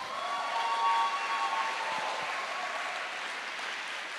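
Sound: audience applause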